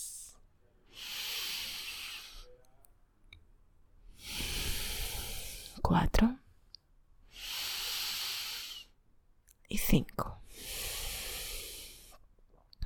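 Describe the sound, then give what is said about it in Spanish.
Slow, deep breathing through both nostrils during meditation, four long airy breaths, each lasting about two seconds, with a voice briefly counting between two of them. “Quédate ahora respirando natural por los dos lados”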